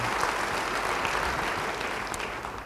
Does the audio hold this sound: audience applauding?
yes